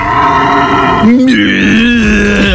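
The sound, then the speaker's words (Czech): A red deer stag's rutting roar, a loud, deep, drawn-out bellow that shifts pitch partway through and carries on for a few seconds with no other sounds around it. “byl to jelen. My jsme napodobovali jelena. Jelena vří.”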